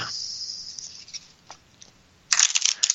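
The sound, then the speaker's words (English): A couple of riffle shuffles of a deck of playing cards: soft scattered clicks and crackles, then a loud, dense papery flutter as the cards cascade together at the end. No voices. “Okay, a couple riffles.”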